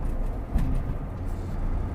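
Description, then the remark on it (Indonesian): Steady low rumble of a car's interior while driving on the road from Dalung to Karangasem, a constant road and engine drone with a brief thump partway through, no voices present. “dan kenapa uh, merekam podcast di mobil ya karena memang sehari-hari uh, mengarungi jalan dari Dalung menuju Karangasem gitu ya”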